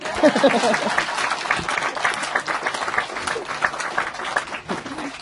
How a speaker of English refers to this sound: Okay. I think I'm done. Yep. Okay. Clap hand again.